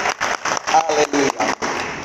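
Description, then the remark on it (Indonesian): An audience claps together in a steady, rhythmic beat, giving applause to Jesus, the applause loud, with a few voices rising faintly among the clapping. “Kita berikan dulu tepuk tangan bagi Tuhan Yesus. Boleh lebih semangat lagi.”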